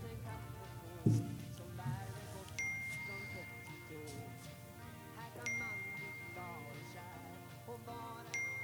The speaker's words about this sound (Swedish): Ja, jag hör ju att min telefon är någonstans. Kan jag lokalisera den? Den har slunkit ner under sätet på passagerarsidan.